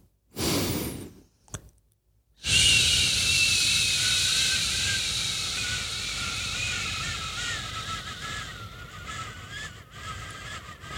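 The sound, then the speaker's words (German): After a quick breath in and a brief pause, a person exhales on a long, steady "shhh" as a breathing exercise to prepare the voice before a performance, a breathy hiss that holds for about eight seconds, easing slightly toward the end. “Also ich atme ganz normal ein und atme dann aus auf Sch okay.”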